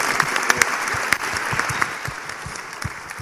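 A crowd claps steadily once more, dense overlapping handclaps forming a continuous wash of applause with a few sharper individual claps standing out, sustained at an even level throughout.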